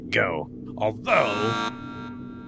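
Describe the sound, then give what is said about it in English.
A steady electronic countdown alarm buzz, signalling that trash is about to be vented into space, holds under a man's voice, swelling loud and harsh for a moment before dropping to a thinner tone that lingers and then cuts off. “That is the sound of the countdown.”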